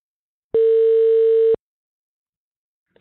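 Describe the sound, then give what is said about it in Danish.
A single steady ringback tone from an outgoing phone call to a shop in Stuttgart, Germany, sounds for about a second, clear and alone, then gives way to silence before a faint click at the very end. “Jeg ringer til en af de butikker, som det gik ud over.”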